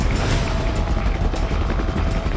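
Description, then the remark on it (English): A police helicopter roars overhead as it approaches a hospital parking garage, its rotor thumping steadily beneath a dense wash of engine and wind noise that stays loud throughout, with no voices. “From above, a police chopper approaches the hospital parking garage.”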